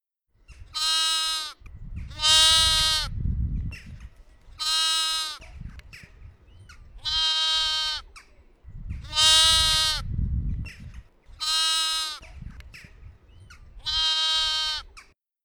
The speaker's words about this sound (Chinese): 继续往前走，听见一只小羊在喊它爸爸出去玩。听，小羊在咩咩咩叫。